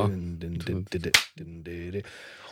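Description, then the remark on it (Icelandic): A sharp, bright drum rim click, struck with a stick on the rim, cracks out once in a song mix, sitting prominently far forward in the mix over a sustained sung melody and accompaniment. “og þetta er svo framalega í mixinu þessi smellur sko, já, þetta, er svo, þetta er svona gerðarsánd það er slegið, þú veist, með, með kjöða og gjörð”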